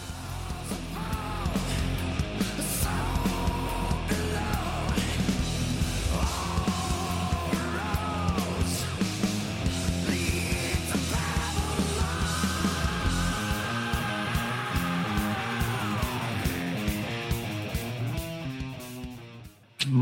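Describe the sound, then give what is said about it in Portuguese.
About twenty seconds of a band's song: loud, steady full-band instrumentation under a strained, shouting lead vocal with sustained high notes, cutting off abruptly at the end. “fica com um trechinho do som nesse momento.”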